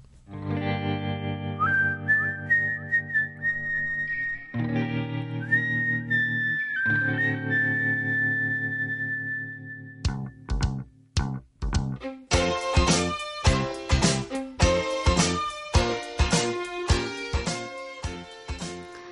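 A pop song plays loudly, opening with a sustained drone and a high, whistle-like melody before a full band bursts in with a bright, punchy, steady beat.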